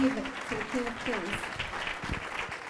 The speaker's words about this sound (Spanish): Amén ese fuerte aplauso si usted lo cree al Rey de Reyes.